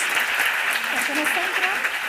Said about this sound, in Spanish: Venga, chicas, muchas gracias y un aplauso